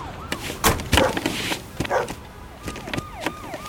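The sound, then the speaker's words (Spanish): Dogs bark in a scatter of sharp bursts, then high, wavering whines rise and fall toward the end, as police dogs are sent to inspect the underside of a truck, with no one speaking. “Morris, los bajos. Venga, con los perros.”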